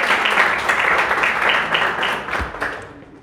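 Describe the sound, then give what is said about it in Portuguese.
An audience at a church service applauds with dense, steady clapping that holds strong for a few seconds, then gradually tapers off toward the end. “Agradeço a oportunidade e as palmas logo, Senhor.”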